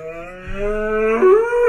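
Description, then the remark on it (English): A person's voice imitates a cow, producing a long, drawn-out moo that rises in pitch and grows louder toward the end, with no talking. “Go on, do the cow, bro.”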